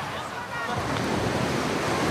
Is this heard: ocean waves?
yes